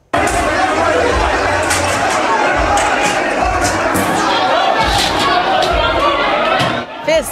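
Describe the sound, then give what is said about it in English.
Loud, chaotic crowd commotion from a brawl at a New Year's Eve party at a banquet hall on Nordel Way in Surrey, many voices shouting and yelling at once, broken by repeated sharp crashes and bangs of chairs being thrown, continuing steadily before a brief lull near the end. “A brawl broke out at a New Year's Eve party in Surrey, and the madness was caught on video.”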